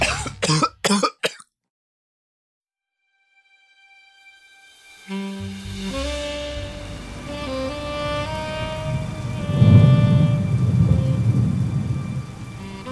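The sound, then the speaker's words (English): After a few sharp bursts and a brief silence, steady rain on a cold summer night fades in and keeps falling, joined by low rumbling and a sustained tonal drone, growing louder toward the end. “Too cold for a summer night, the rain coming down.”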